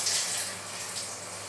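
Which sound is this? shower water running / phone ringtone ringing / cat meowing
shower water running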